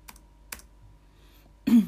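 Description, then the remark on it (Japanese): Two sharp, separate computer keyboard clicks tap out slowly over a quiet background, followed by a louder, rougher burst of noise at the very end, as someone types on a PC to look up the history of the shinobue flute. “パソコンカタカタパソコンカタカタさせていただきますけれども、えー、よろしくお願いします”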